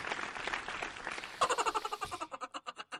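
Dense applause thins into steady, rhythmic clapping, ending in sharp, evenly spaced claps at a brisk pace. No one speaks.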